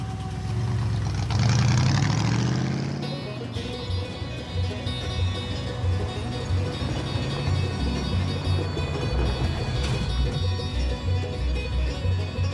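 A Chevrolet car covered in dried red mud revs up and rises in pitch as it pulls away from Las Vegas, then settles into a steady, rumbling drive with no voices.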